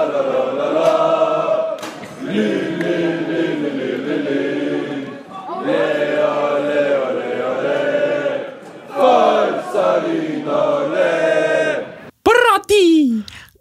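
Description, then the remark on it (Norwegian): A football crowd at a Vålerenga men's team match against Lyn cheers and chants loudly, voices blending into sustained, tuneful phrases with brief breaks between them, ending in a few sharp rising whoops. “Uh, det er jubel. det er jubel, det.”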